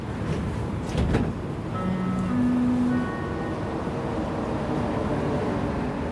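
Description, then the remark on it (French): Inside a crowded metro car at rush hour, next station Mont-Royal: a steady rumbling hum, a brief clunk like sliding doors early on, then a rising electric motor whine as the train pulls away, continuing as a constant roar. No voices. “Après l'interview de Ginette, je suis rentrée chez moi directement en métro.”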